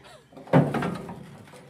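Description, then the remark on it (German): A heavy metal container door on an island is pulled open with a sudden loud clunk, followed by a resonant, rattling scrape that fades over about a second. “So, dann mach mal auf hier deinen Container.”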